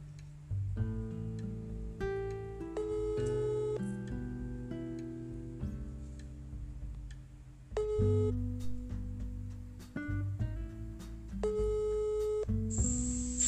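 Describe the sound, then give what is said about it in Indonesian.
A phone call's ringback tone plays steadily for several seconds, a tinny, melodic run of electronic notes heard through the handset with no one talking. “bisa coba kita telepon bisa seru ya kayak gini ya telepon se coba kita langsung kita telepon”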